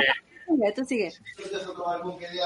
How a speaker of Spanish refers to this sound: van a empezar a oír un poquito de ruido. Esos son los bomberos gritando.